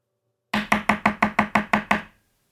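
A hefty board-game piece, the 'Hey, gør lige noget' piece, is banged on a table in front of a player to make them act, about nine times in a quick, steady rhythm, each loud, hard knock ringing briefly before the next, with no talking.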